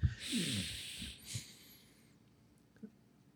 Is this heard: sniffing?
yes